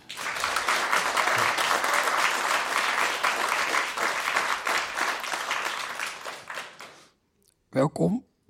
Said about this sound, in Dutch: naast mij zit, en mag ik eh, eh, voor hem een heel erg hartelijk applaus,